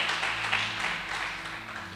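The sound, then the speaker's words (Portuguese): An audience applauds the Lord for the preached word, a steady wash of many hands clapping together for about two seconds, with a faint low hum sustained underneath. “Você pode aplaudir ao Senhor por essa palavra.”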